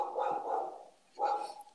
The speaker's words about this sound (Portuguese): Oh, o cachorro é... começou a latir, pandemia.